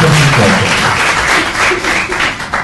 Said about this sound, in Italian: Fate un applauso.